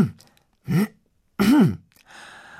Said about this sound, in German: Noch fünfmal räuspere ich mich und huste.